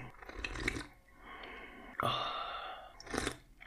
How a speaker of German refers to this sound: Geht das eigentlich auch ohne Schlürfen? Sekunde. Das Interessante ist, mit Schlürfen hat man weniger Angst vor der Hitze, weil es ja auch abkühlt. Und leicht schlürfen war ich dabei. Und ohne Schlürfen hat man halt viel mehr Angst vor der Hitze